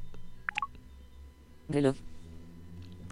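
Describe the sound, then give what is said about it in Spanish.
An iPhone screen unlocked with a double tap: two quick, bright electronic blips in rapid succession, then a louder, brief voiced, speech-like sound over a low, steady background hum. “Voy a desbloquear la pantalla con un doble tap.”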